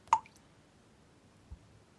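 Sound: dripping water tap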